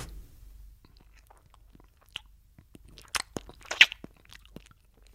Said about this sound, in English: I would now like to eat a packet of fridge raiders in front of you.